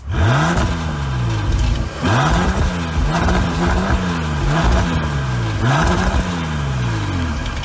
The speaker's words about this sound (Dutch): 6 liter W12 motor